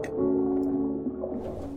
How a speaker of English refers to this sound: Light splashing filtered from the upstairs bathroom, and I smirked as I headed towards the sound.